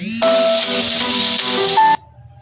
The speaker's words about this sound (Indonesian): sorry ada intermezzo itu tadi alarm saatnya aku posting